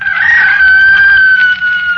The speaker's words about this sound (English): And below us somewhere a rooster crowed, and I was standing alone on the hill.